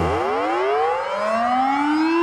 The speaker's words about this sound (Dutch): En het ding is, als het luchtalarm dan een keertje afgaat, dat als er echt wat gebeurd is, als er echt wat gebeurt op de dertiende of zo, dan ben je gewoon bezig met je leven en dan denk je,